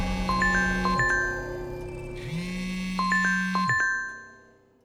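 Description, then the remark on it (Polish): A phone rings in the morning with a buzzing electronic tone in two long pulses, overlaid with a quick melodic chime of bright notes, fairly loud before fading out. “Rano zadzwonił telefon.”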